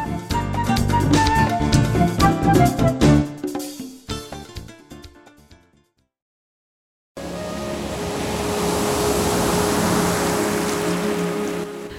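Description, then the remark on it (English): Gentle instrumental music fades into a brief silence, then a steady, loud wash of ocean waves rolls in and swells, with faint sustained tones drifting beneath the surf. “luscious ocean waves, peaceful music, inviting us to spend time together in the quiet.”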